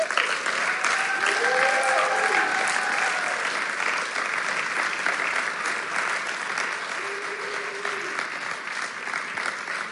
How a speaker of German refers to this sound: Ihr dürft den beiden nochmal einen großen Applaus geben.